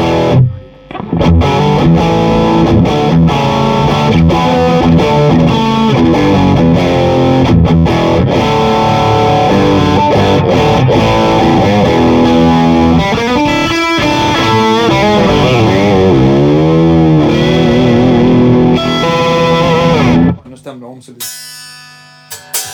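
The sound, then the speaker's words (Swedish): Loud, crunchy distorted electric guitar chords played through a tube amp ring out continuously for about twenty seconds, with some bending notes midway, then cut off abruptly into a few quieter scraps of sound. “Eh, men jag, eh, jag tar några ackord till i alla fall på den.”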